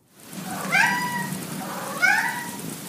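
Two clear, drawn-out meows from a cat wanting to go outside, the second rising in pitch, set against a steady hiss of rain in the background.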